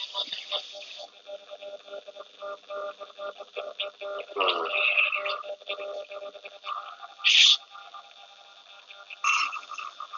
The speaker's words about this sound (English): A little static in the back.